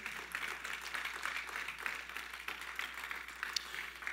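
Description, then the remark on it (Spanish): An audience applauds for the Father (God) in a steady, dense wash of clapping that holds at an even level for several seconds, with no voices over it. “déle ese fuerte aplauso al Padre.”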